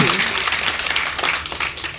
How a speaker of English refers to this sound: It's something like over 6 million books worldwide. That's enormous. Yes, that does deserve another round of applause.